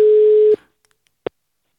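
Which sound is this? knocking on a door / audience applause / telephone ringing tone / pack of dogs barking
telephone ringing tone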